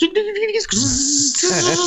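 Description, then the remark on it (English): A person vocally mimics a dial-up modem's connection screech: warbling tones give way to a loud, sustained hissing screech, then a wavering buzz, all in under two seconds. “unless they've been on dial-up for the last 20 years and now for the first time in their life they're not using a modem that goes”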